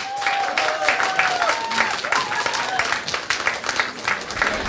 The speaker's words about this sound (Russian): Так где аплодисменты?